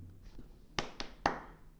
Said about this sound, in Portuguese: Bem, estas palmas foram qualquer coisa.